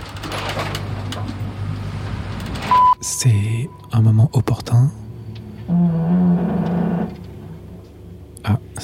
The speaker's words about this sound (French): c'est le mât qui grince.